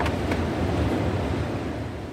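Wild Atlantic surf roars steadily against a shore at dawn, a dense, continuous wash of crashing waves with gusty wind noise and no voices.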